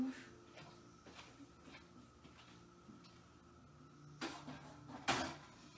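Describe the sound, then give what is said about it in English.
A tea kettle is set down on a stovetop with two solid clunks near the end, after a stretch of quiet handling noises and faint light ticks. “Put this tea kettle over on the stove.”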